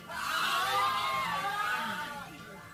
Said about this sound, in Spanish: Todos trataron de correr buscando la salida. Chocaron unos con otros, cayeron al suelo y fueron pisados. Los gritos de miedo y dolor se escuchaban en toda la casa.